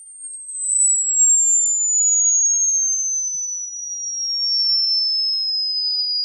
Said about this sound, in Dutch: En als je nou niet weet wat tinnitus is, luister dan even heel kort naar dit fragment.